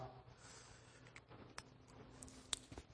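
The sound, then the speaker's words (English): A pen or marker scratches steadily across paper as a line is drawn on a diagram for installing gutters, soft, broken by a few small taps and clicks near the end. “We'll, we'll make another line here.”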